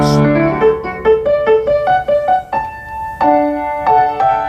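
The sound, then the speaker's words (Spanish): A French grand piano built in 1904 plays a clear, flowing melodic phrase of a dozen or so struck notes, each ringing briefly before the next, fairly loud with no voices. “creo que ahora queréis salvar un gran piano de cola francés del año 1904 que suena así.”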